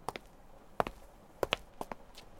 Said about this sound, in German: Plötzlich, Sven hört Schritte.